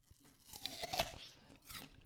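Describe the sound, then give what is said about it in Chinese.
Crunchy chewing of an apple: a few crisp, wet bites and grinding crunches in an irregular rhythm, the loudest snaps around the middle, with no talking. “回头一看呢，科学家正站我身后，手里头拿了个苹果，嘎吱嘎吱搁那嚼呢。”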